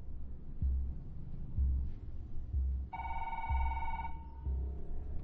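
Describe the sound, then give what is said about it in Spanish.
A telephone rings once with a bright, buzzing electronic tone lasting about a second, heard over a steady, low rhythmic thumping in the background. No one speaks. “¿Quieres que conteste yo y diga que se han equivocado?”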